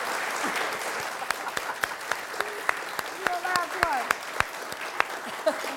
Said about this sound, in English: Big round of applause to ATX Television Festival, to Robin Thede